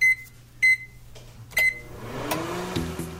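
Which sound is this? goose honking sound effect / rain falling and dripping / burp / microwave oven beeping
microwave oven beeping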